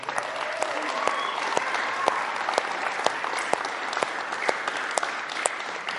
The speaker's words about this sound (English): Let me give them a round of applause.